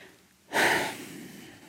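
A single deep, airy breath taken by a 21-year-old woman before she begins to tell her story, starting abruptly and trailing off into a soft hiss. No one speaks.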